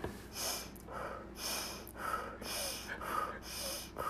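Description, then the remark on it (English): A voice imitates deep exercise breathing: a steady run of loud, breathy inhales and exhales, about two per second, with no talking. “No, he was, was just like, breathing.”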